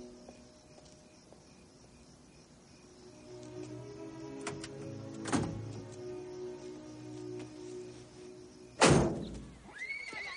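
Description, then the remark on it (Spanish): A horse whinnies on a farm with a long, wavering call over quiet outdoor ambience, followed by a sharp snort or thump and a brief second whinny near the end. “John, Peter y Ruby están en una granja con caballos.”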